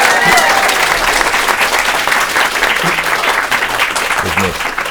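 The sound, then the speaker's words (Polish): A live audience at a comedy show recording applauds loudly and steadily for the full five seconds, a dense, even wash of many hands clapping with a faint murmur of voices mixed in. “jeszcze, dogramy jeszcze te brawa, tak?”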